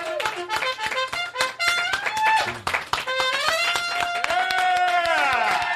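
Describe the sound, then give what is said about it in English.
Sharp hand claps repeat in a fairly steady rhythm over a bright horn melody with sustained, sliding notes, the claps cutting through clearly from start to finish. “And when I applaud, holy like, shit, you know what?”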